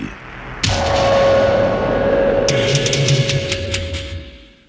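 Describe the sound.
A dense, dramatic soundtrack from the Death Wish 3 movie trailer kicks in with a sudden blast and a droning tone, followed by a quick rattle of loud, rapid gunfire bursts, vocally imitated by Michael Winslow of the Police Academy films.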